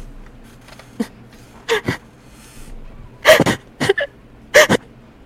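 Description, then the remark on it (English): A single voice imitates a young child's soft crying: short, breathy sobs and whimpers come in uneven pairs and clusters, with quiet pauses between the gasping bursts. “and coming from like a little far off in some of the woods off the path, you can hear Somebody, you can hear, you can hear a soft crying.”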